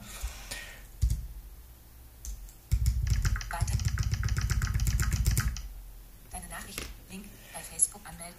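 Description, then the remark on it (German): Rapid, steady clatter of keys on a Windows computer keyboard, a burst of typing in WhatsApp lasting a few seconds, with a man's voice speaking before and after it. “Na gut, also ihr will, man kann zumindest mit der Windows-Tastatur auf jeden Fall in WhatsApp auch schreiben.”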